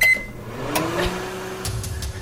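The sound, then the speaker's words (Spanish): A microwave oven hums steadily, opening with a short high beep, with a few soft clicks and rattles over the running drone. “El microondas.”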